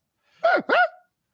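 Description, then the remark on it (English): A person imitates a dog with two quick, voiced bark sounds in a row, fairly loud, with silence before and after. “Did you just bark? Is that what that was?”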